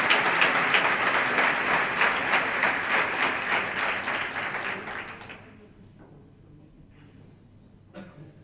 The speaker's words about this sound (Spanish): Y ahora se vuelve hacia el público y agradece y agradece estos aplausos.